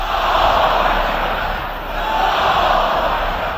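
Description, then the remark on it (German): A crowd of several thousand people chants slogans in unison, such as "Khamenei is the leader", at a rally in Tehran on 13 February 2020 commemorating Qasem Soleimani, a loud, dense wall of voices that swells, dips briefly midway, then surges again. “Khamenei ist der Führer, skandieren die Menschen.”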